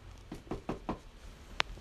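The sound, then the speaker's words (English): Four evenly spaced knocks on the wooden door of a house, soft, followed after a short pause by a single sharp click. No voices are present. “And I knocked on the door again.”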